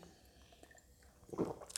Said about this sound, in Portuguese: Claro que demanda esforço, demanda trabalho, deixa eu tomar uma água aqui.